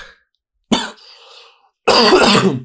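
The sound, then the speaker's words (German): Two loud, close coughs: a sharp short one followed by a brief raspy throat sound, then a longer, harsher cough after a pause. No speech. “Na, also, das Husten tut mir unglaublich leid.”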